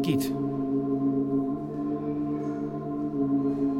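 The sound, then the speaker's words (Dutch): A steady electronic hum of layered tones drones on for about four seconds, opening with a brief sharp click and staying fairly loud and even throughout, with no voices. The tones come from electrodes attached to a dead parakeet, fed to a device and converted into sound by a computer. “Dus wat je nu hoort is het geluid van een”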